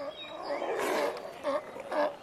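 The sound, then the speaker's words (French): A sea lion colony napping on a beach grunts and bellows from a distance, several rough, throaty calls overlapping, with two or three louder grunts rising near the end over a steady background hiss. “Et tu entends ces grognements au loin C'est la colonie de lions de mer qui fait la sieste sur la plage.”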